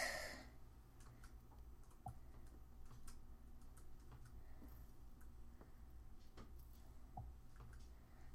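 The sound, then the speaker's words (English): Soft, irregular clicks of someone typing on a computer keyboard, scattered taps over a low steady hum, fairly quiet, with no talking. “I am typing.”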